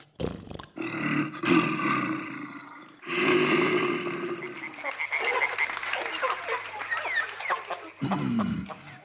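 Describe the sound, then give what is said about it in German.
A bear roars loudly in several long, rough, growling bursts, with a raspy, crackling stretch in the middle and a final short roar at the end. “Unser dritter und letzter Kandidat. Bär Famos von Höhlendorf.”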